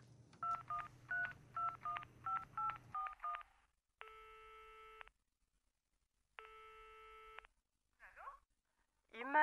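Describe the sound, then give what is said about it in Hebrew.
A phone number is dialed in quick keypad beeps over a low hum, followed by two long ringing tones on the line, then a voice briefly cuts in at the end, opening a song from a 2015 album that leads into singing with guitar. “שתתחיל בשיחת טלפון אשר תוביל אל אה, שירתה בליווי הגיטרה במז'ור.”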